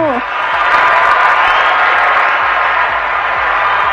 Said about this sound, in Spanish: No, hombre, hasta una standing ovation te dieron